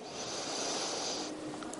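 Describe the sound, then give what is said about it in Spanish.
A long, airy breath, a steady hiss of exhaled air lasting over a second before it fades out, with no talking. “Respiración.”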